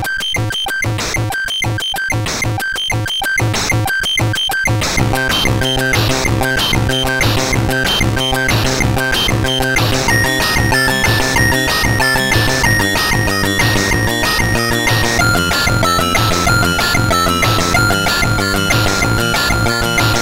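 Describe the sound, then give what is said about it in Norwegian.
Music from the computer game Phantoms of the Asteroid plays loudly on its own: buzzy, square-wave chiptune tones in a fast, pulsing rhythm, with a bright melody line that shifts pitch partway through. “Det kom et spill som heter Phantoms of the Asteroid, og det hørtes sånn her ut.”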